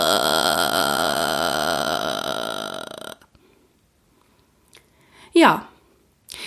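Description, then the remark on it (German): A singer demonstrates the vocal fry (creaky voice register) technique, holding a loud, gravelly vocal fry for about three seconds, a low rattling creak, then goes quiet apart from a brief breathy vocal burst near the end. “Die nächste Technik ist einer meiner Lieblingstechniken, der sogenannte Vocal Fry oder Schnarregister. Ich mache es euch einmal vor, dann wisst ihr, was ich meine.”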